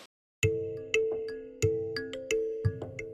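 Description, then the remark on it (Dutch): A telephone rings with a bright, melodic electronic tone, a series of sharply struck notes repeating every half second or so, loud with no one speaking. “En toen ging die, eh, ging natuurlijk bellen.”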